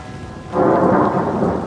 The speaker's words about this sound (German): Kaum hatte die Uhr Mitternacht geschlagen, brach ein heftiges Unwetter los. Es regnete und regnete. Es donnerte so laut, dass den Menschen das Ohrenschmalz aus den Ohren flog.